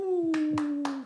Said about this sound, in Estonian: suur aplaus, head vaatajad. ….